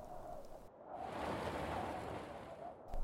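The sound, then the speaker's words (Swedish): Åsa's car rolls slowly onto a gravel yard, its tires making a steady, dense crunching rumble, continuous for a few seconds and swelling slightly at the end, with no voices. “Ljudet från Åsas bil som rullade in på grusplanen avbröt brödernas grubblande.”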